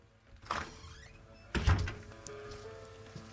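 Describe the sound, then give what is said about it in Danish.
A door opens with a soft creak and swish as someone comes in, followed by a low thud as it shuts, with a faint rain-like hiss in the background. “Personen, der har myrdet Henning Madsen, august 4. august år 2018 kommer ind ad døren nu.”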